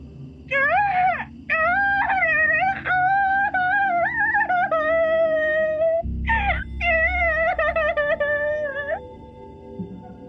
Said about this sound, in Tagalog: May batang umiiyak, Sir Wilmore. Galing ang boses nito sa second floor. Umakyat ako ng dahan-dahan at pinakinggang mabuti kung saan galing ang iyak ng bata. Galing ito sa nakasarang kwarto sa second floor.